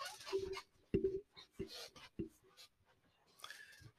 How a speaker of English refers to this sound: Listen to how squeaky my chair is.